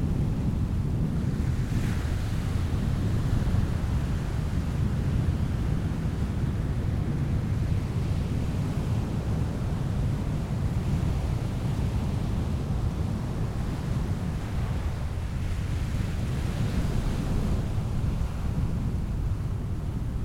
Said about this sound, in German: noch ein Stück näher ans Meer ran, dass ich quasi schon fast mit den Füßen im Wasser stehe. Damit man einfach noch hier ein bisschen Wellenrauschen aufnimmt.